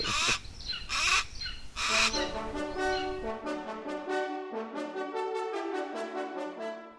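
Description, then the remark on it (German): A golden eagle calls over and over in a quick, steady series of thin, yelping cries, following a few harsh noisy bursts at the start. No one speaks. “Weil das kann ganz schön nervig sein, das Rufen. Gerade das zum Beispiel von unserem Steinadler da hinten.”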